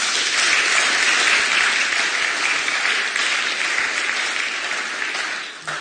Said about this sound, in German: Ja, heute wird viel geklatscht. Auch gut.